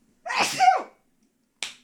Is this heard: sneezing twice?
yes